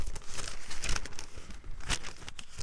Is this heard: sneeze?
no